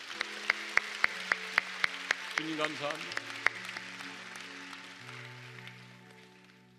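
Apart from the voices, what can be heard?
audience applauding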